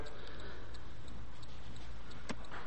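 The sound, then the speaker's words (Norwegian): A faint, distant boat engine ticking in a steady, regular rhythm over low background rumble, a small boat out at sea approaching closer and closer. “så kommer det etter hvert en lyd til, i det fjerne av en båt som tikker seg nærmere og nærmere.”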